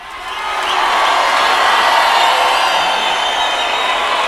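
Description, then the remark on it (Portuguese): A large audience cheers and applauds loudly and continuously, a dense wash of clapping and shouting that swells in over the first second and holds steady without letting up. “Realmente, se continuar assim, a plateia não vai se acalmar nunca.”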